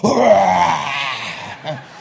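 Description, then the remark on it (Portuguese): A man's voice imitates the yawn of a lion kept behind a grate, a loud, drawn-out groaning moan that slides downward in pitch and fades, followed by a short, softer grunt. “Meus irmãos, ele deu só um bocejo, só um bocejo, como quem tivesse com sono.”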